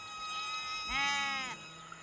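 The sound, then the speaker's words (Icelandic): A single sheep bleats once, a wavering, nasal cry lasting about half a second, over a steady background hiss with no talking. “um leiðu þeir heldu að þeir vissu hvaðan tónlistin og kindajarmið bærist”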